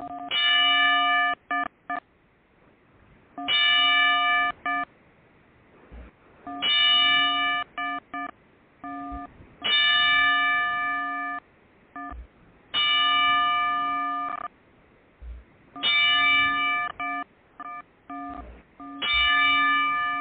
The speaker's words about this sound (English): So with that, uh, let's uh, let's give a ten bell salute to the late Mr. Wonderful Paul Orndorff